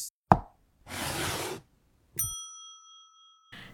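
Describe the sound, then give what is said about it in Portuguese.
A white chess knight is set down on square H3 of the board as the opening move, with one short, sharp knock, followed by a soft rushing noise and then a bright ringing chime that slowly fades. No one speaks. “Caio com as peças brancas, Gabi com as pretas. As brancas saem primeiro. Hum, vamos lá. Cavalo na H3.”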